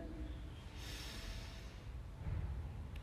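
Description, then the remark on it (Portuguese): A slow, deep breath drawn in with an airy hiss, followed by a softer exhale, with no talking. “Vamos fazer uma respiração profunda.”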